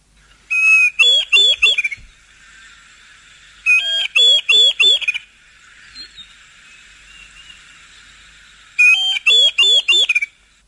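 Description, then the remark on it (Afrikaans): A diederik cuckoo calls three times, each phrase a quick series of about five bright, rising whistled notes, separated by pauses with a faint background hiss and no talking. “kom ons luister gou na die alom bekende Diedruk.”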